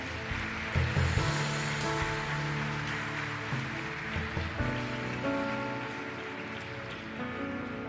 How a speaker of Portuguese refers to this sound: Pode aplaudir o Senhor porque Ele é bom.